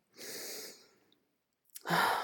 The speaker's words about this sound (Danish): Mm, jeg lukker øjnene og tager adskillige dybe åndedrag.